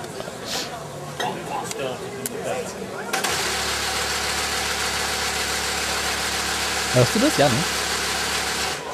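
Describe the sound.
A car engine cranks and catches about a third of the way in, then settles into a steady, loud, low idle that continues to the end. A person speaks briefly over the sounds.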